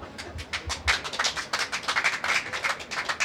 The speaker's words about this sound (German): Kannst gerne klatschen.